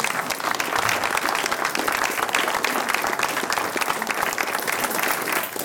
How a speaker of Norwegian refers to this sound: Vi må gjerne klappe når de kommer opp.